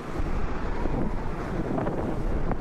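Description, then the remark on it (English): Strong blizzard wind roars steadily, a dense rushing howl that buffets the microphone with low rumbles throughout, with no voices present. “I'm in a blizzard, man.”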